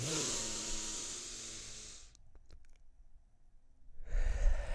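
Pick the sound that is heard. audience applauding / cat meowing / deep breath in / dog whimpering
deep breath in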